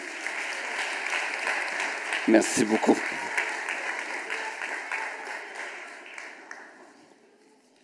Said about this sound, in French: Merci beaucoup. On applaudit les familles.